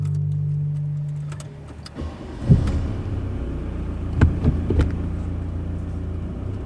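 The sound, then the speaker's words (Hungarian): A car driven by the speaker's father rolls along at a slow, even pace with no sudden movements, its low engine hum and road rumble steady throughout, broken by a few soft bumps and light rattles from inside the cabin. No one speaks. “Lassú tempóban haladunk. Szeretem, ahogy vezet.”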